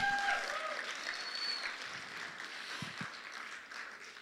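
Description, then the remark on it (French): An audience applauding God in a steady, dense wash of clapping that fills the room for several seconds, with scattered voices and a few high cheers mixed in. “Et oui, tu peux, l'élever, tu peux le glorifier, tu peux applaudir Dieu parce qu'il a fait de grandes choses dans ma vie.”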